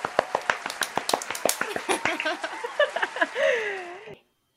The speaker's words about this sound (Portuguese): uma vinheta de palmas para ela.